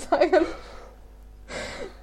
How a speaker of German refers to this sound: Ich musste gerade gähnen, das sah witzig aus.